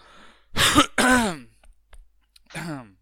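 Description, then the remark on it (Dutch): A loud throat clearing in two harsh bursts, followed after a short pause by a softer third rasp, with no talking. “Zo, die is eruit, die kikker.”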